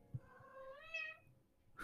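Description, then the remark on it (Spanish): A single drawn-out meow from a female cat, rising then falling in pitch, not loud, followed by a brief soft thump at the end; no one is speaking. “Pero mm, ahí anda mi gata.”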